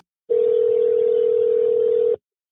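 A steady, unbroken telephone dial tone hums for about two seconds, a single loud pitch over faint line hiss, then cuts off abruptly before any voices come in.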